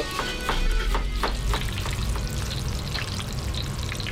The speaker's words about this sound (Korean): 이제 고구마 튀기고 이제 저거 튀기는데요, 야채. 아, 야채 좀 모자란데 야채 좀 튀겨주세요.